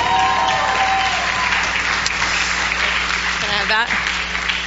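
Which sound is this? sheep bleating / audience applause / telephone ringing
audience applause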